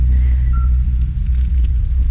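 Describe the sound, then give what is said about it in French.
Crickets chirp in a steady, continuous high trill across a quiet countryside night, with a faint low rumble of air traffic from overhead air corridors underneath and no voices. “Eh ben non La nuit, la campagne, les grillons, les grenouilles, et écoutez bien.”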